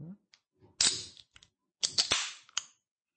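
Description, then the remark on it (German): A can of malt drink is cracked open: sharp metallic snaps followed by bursts of fizzing hiss, in two separate pulls, with no talking. “Ich äh, öffne das immer. Achtung, äh, Atmo.”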